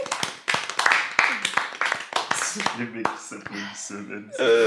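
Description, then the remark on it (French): A few people applaud themselves for reaching the end of the fourth volume, clapping in a quick, uneven patter that thins out after a few seconds, while voices and laughter rise over and continue past the applause. “Et ouais, on peut s'applaudir Oui.”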